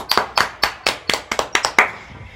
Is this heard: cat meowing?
no